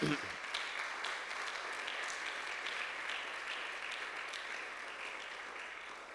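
An audience applauds together for the king, a dense, steady wash of many hands clapping that holds at an even level for several seconds before easing slightly.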